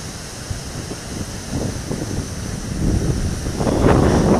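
Wind blows steadily and roughly, buffeting the microphone with low rumbling gusts that grow stronger toward the end, with no voices present.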